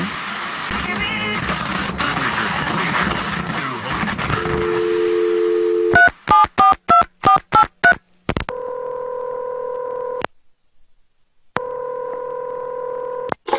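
Noisy background gives way to a brief dial tone, then a quick run of about eight keypad beeps, followed by two long ringback tones separated by a pause.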